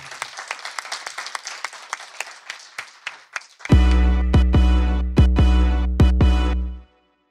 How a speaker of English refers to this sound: With that, please help me in, in thanking my guest, Tim Urban, and give yourselves a round of applause for coming to this session. Thank you so much.